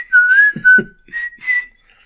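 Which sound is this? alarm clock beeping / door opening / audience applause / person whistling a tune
person whistling a tune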